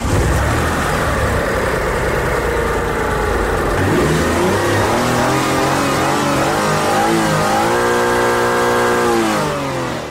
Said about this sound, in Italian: Allora qua bisogna fare una bella revisione al motore perché brucia un po' di olio.